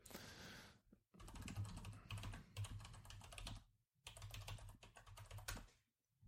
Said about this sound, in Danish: Fuck, der bliver klikket på det tastatur, mand.